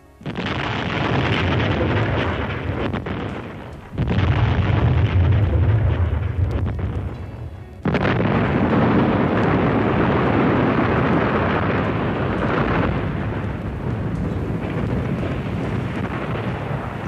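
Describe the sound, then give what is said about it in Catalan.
Heavy explosions from a second artillery volley, bursting on the other side of a spa resort, boom in three close bursts, each rolling into a long, loud, low rumble that fills the scene with no voices. “La segona andanada esclatava, aquest cop a l'altre cantó del balneari.”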